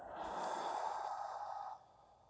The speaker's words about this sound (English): And so as we close out, let's come together taking an inward breath, breathing in, breathing out,